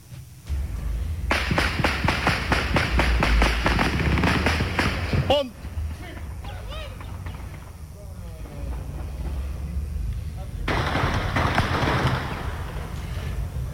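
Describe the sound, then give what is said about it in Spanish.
Long bursts of rapid gunfire crackle outdoors in Navarrete early in the morning, a dense rattle of shots lasting several seconds, then a short lull with faint background sounds before another sustained volley erupts. “Esta mañana, temprano, eso se escuchaba en Navarrete.”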